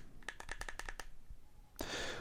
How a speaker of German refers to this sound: Und das Schöne ist auch, ich kann dieses Scrollrad nach unten drücken. Ihr hört's. damit kann ich also auch, äh, ich glaube, einen Enter-Tastendruck auslösen.